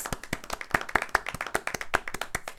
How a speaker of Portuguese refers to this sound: Palmas.